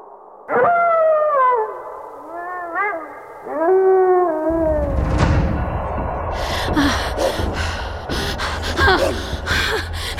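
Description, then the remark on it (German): A wolf howls in a few long, wavering, drawn-out cries, loud, before the sound gives way to a noisy, rumbling scuffle with harsh bursts. “Gleich, gleich hat mich der Wolf eingeholt.”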